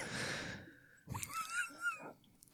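After a brief stretch of hissing noise, a dog mount in a video game, bought from the in-game shop, gives a few short, high-pitched yelping barks with a whiny tone when its emote is used, moderately loud, with no talking.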